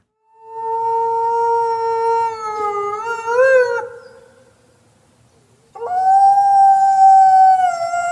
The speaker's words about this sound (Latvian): Vilks. Jā, tas bija vilks, jā.